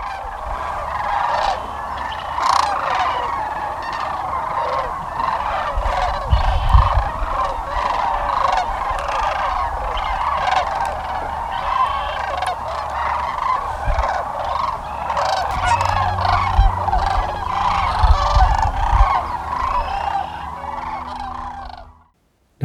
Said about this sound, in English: I recently had the opportunity to visit some of these wintering birds in southeast Arizona so, this is what a few thousand wintering sandhill cranes sound like.